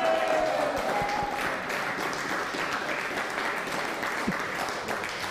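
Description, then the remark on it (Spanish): Sustained applause from an audience, given for a viewer watching the show from afar, a dense, steady wash of clapping at even loudness for several seconds, with a faint tone briefly audible near the start. “Lorenzo Juárez, denle un fuerte aplauso que nos está viendo.”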